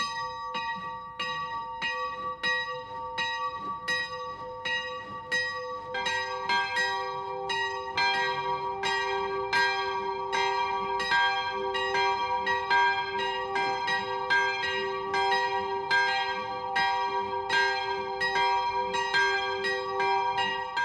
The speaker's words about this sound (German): Es ist 12 Uhr. Das Mittagsläuten kommt heute von der Klosterkirche Kronach.